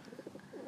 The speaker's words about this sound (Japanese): あちょっと鳩の声が聞こえるかもしれないです3匹目が来た